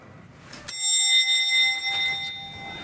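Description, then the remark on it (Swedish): A doorbell at Janne's home rings once with a sudden bright chime, its clear metallic tones lingering and slowly fading over a couple of seconds in an otherwise quiet space. “Jag tror inte att Janne kommer bli någon rädd för mig när jag ringer på.”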